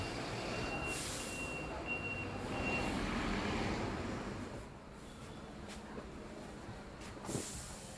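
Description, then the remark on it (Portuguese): A bus rumbles as it arrives at a stop, its engine droning low and steady, with a thin intermittent beeping early on and sharp hisses of air brakes as it pulls in and settles. “O ônibus chega e o ambiente muda.”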